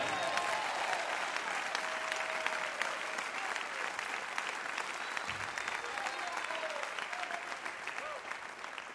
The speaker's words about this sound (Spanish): ¿Cuánto lo creen? Si lo cree, apláudele fuerte a Él.